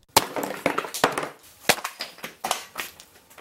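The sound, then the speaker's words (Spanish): A clay pot is struck and smashed during the Pa Pul rain ceremony of the Yucatec Maya in Mexico, with a series of sharp, crunching impacts and crackling breakage spread irregularly over a few seconds, fairly loud, with no voices. “Al pegar y romper la olla de barro, se escucha el sonido como un trueno que trae lluvia.”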